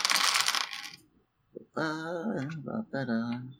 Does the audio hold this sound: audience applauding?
no